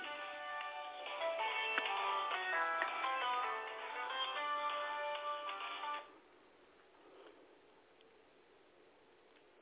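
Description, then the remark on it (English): A phone ringtone for an incoming call plays a bright, busy electronic melody for about six seconds, fairly loud, then cuts off abruptly into near silence with no talking. “Oh, okay, I'm getting these calls and I have to hang them up.”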